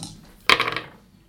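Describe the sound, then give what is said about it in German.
A quick clatter of dice tumbling across a tabletop, a sharp hard hit followed by a few rapid rattling bounces that settle within a fraction of a second, fairly loud. “Ja, würfel bitte mal.”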